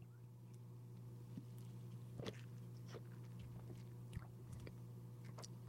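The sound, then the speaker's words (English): Someone takes a second quiet sip of a blackberry drink, with a few soft slurping and mouth-click sounds over a steady low electrical hum, no talking. “But this is uh, this is more up my alley. Sip two.”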